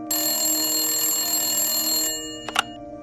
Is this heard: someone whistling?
no